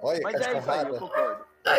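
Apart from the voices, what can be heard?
dog barking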